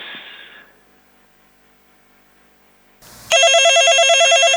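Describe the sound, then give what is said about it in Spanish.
A loud electronic telephone ring bursts in after a few seconds of faint line hum, a rapid warbling trill that continues until the end. “Había teléfono, se cortó.”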